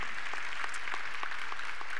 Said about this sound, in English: can we just give them a, a round of applause and appreciation for all that God has done in and through their ministry?